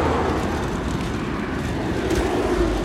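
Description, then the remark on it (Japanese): A car drives by on the street, a steady low engine and road rumble that swells slightly toward the end, with no voices. “ブーもいるねブーって車ブーってブー速いねブーって”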